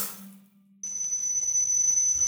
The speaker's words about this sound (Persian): صدای سوت ممتد داخل گوشش جریان یافت